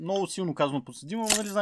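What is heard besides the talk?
opening a beer bottle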